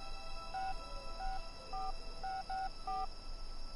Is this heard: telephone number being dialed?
yes